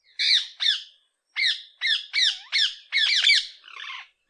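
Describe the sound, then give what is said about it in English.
A rose-ringed parakeet gives a series of about ten loud, harsh screeching calls, short and sharp, in quick irregular bursts, clear with no other sounds around. “This is the call of a rose ringed parakeet.”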